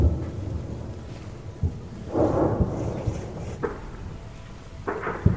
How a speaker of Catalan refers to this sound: Imagineu-vos el que és viure 68 dies seguits sota les bombes, amb aquest so contínuament i amb l'amenaça que suposa.